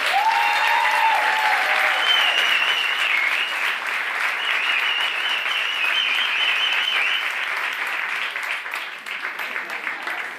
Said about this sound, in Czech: Takže poprosím velký potlesk